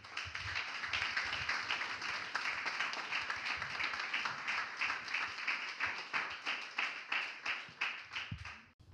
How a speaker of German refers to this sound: Und deswegen lasst uns ihn nochmal mit ganzem Herzen begrüßen und nochmal einen dicken Applaus geben,